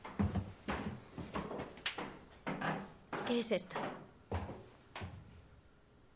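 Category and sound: household object, door being opened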